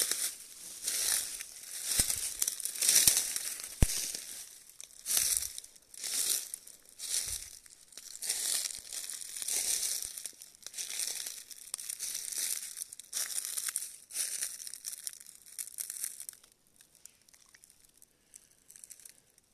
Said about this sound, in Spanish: y cada paso suena a un delicioso acercamiento hacia un lugar nuevo.